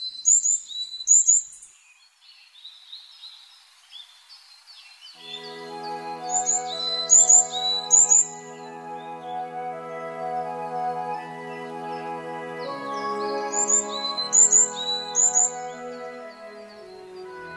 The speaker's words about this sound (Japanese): 山柄のさえずりはとても単調な節回しですそれだけに腰掛けて休んでいるとつい眠気に誘われます